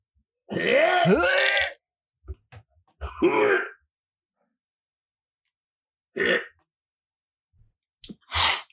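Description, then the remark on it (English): A voice acts out vomiting in a bathroom: a long, strained retching heave, then a shorter gagging burst, followed by a few brief choking coughs and spluttering sounds, fairly loud with pauses between. “I run to the bathroom and vomit.”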